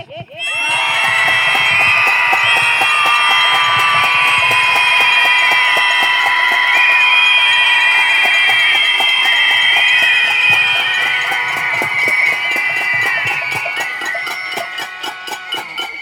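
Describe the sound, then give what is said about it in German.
A crowd screams together in protest against violence against women, a dense, sustained wall of high-pitched shrieks and yells holding steady and loud for about fifteen seconds before thinning slightly toward the end. “Keine Frau muss vor einem Gewalttäter flüchten müssen. Dafür schreien wir jetzt.”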